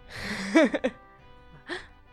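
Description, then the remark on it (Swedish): A person gasps: a sharp, breathy voiced intake with a couple of quick catches, followed after a short pause by a softer second gasp. No words are spoken. “Vad flämtar.”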